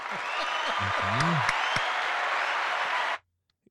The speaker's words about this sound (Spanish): Qué, caballo, dale un aplauso.